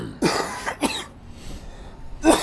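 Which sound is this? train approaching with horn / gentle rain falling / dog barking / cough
cough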